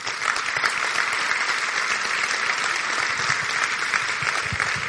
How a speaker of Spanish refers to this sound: Un aplauso para Consuelo.